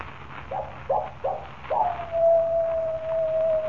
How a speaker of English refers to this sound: That is the second time. When the coyote howls three times, I die.